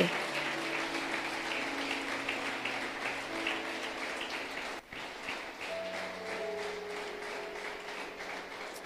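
An audience applauds steadily in praise of God, a dense crackle of many hands clapping at once, with faint sustained tones beneath; a brief dip near the middle before the loud clapping carries on without words.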